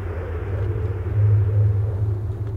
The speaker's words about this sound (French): Scène 3. Arrivée sur le septième continent. Le bateau arrive, le moteur est coupé.